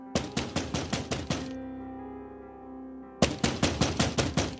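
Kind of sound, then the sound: impact, knocking on a door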